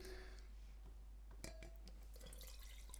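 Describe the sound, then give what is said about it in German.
Wine is poured into a glass, with soft trickling, a few small drips and splashes, and a light glassy clink partway through; no one speaks. “würdest du mir bitte ein Glas nachschenken?”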